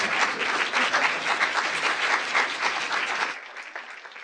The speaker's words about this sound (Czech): Radši mu zatleskejte, když bude odcházet.